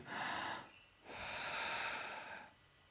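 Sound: a deep breath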